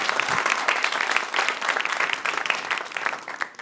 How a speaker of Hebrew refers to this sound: עדיין לא היה הידברות שמביא את האור הזה של הידברות באמת מגיע פה כפיים לארגון המדהים הזה.